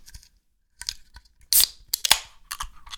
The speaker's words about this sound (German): Also das, was ich heute trinke, kriegt man rein nur in Österreich. Dann würde ich sagen, ich mache die Dose gleich mal auf und dann schauen wir mal, wie das Bier so ist.